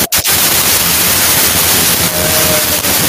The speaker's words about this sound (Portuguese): deu um probleminha aí. Deu uma interferência, né?